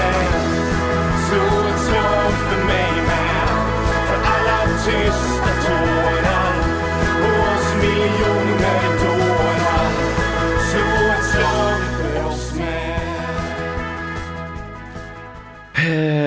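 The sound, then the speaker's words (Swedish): A short musical bumper jingle plays on its own, loud and full, with a steady rhythmic bass line under bright layered melody, easing slightly before cutting off abruptly at the end. “Ska vi ta en liten paus för lyssnarna så att de får eh, andas? En liten bumpa.”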